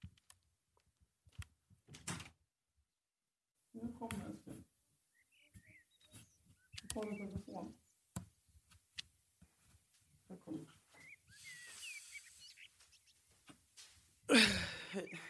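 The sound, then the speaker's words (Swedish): Soft, drowsy murmurs and little coos from a baby boy waking up come in short bursts, with brief rustles between them and a sharper bump near the end. “Hur visste du att han hade vaknat? Jag hörde honom typ mm”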